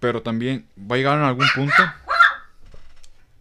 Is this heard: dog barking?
yes